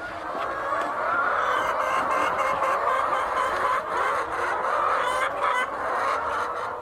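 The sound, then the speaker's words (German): A dense, continuous din of thousands of chickens clucking and chattering together as they peck feed from large troughs in a huge poultry barn at the Amas Farm near Accra, loud and steady throughout with no pauses; no one speaks. “Tausende Hühner picken Futter aus großen Trögen.”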